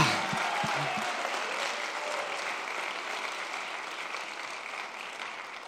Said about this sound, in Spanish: Si lo crees, dale un aplauso fuerte. Vamos a darle un aplauso de lluvia. Que se oiga la lluvia. Can you hear the rain? Can you hear the rain? Puedes oír la lluvia.